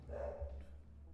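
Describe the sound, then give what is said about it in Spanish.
A dog barks in a short burst at its own home, muffled, over a steady low hum. “el perro. Ah, güey. No hay pedo, güey, que ladre, güey.”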